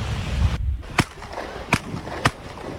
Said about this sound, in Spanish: Este es el sonido del incidente con pedradas y disparos de advertencia.